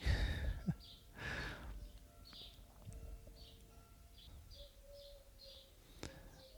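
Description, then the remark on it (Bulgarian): An owl calls outdoors in a village, giving soft whistled notes, while faster high chirps repeat in a steady series against a quiet rural background with a few rustles. “Това бухал ли е, сова ли е?”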